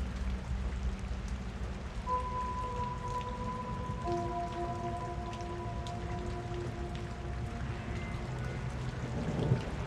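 rain falling

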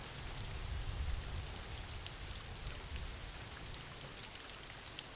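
background rain

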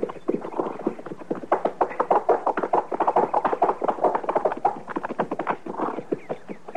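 horse hooves clip-clopping

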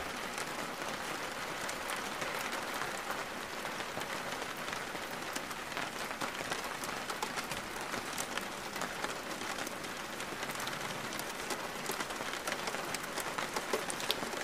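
rain falling

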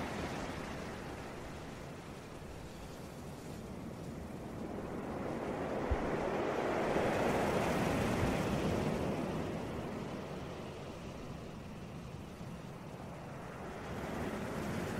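ocean waves

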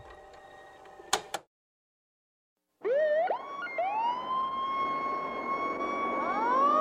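fire engine siren

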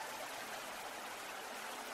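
flowing river water

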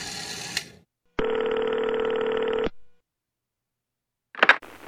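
telephone ringing sound effect

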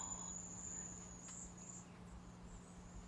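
flies buzzing

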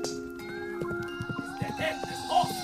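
horse hooves clopping

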